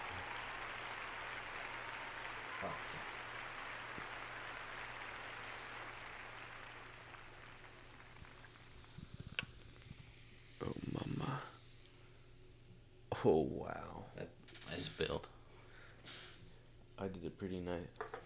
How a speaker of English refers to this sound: pretty nice pour.